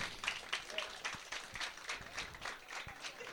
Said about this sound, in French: Et vraiment, merci d'être aussi nombreux ce soir, ça nous fait vraiment plaisir. Vous pouvez vous applaudir, vous pouvez être fiers de vous.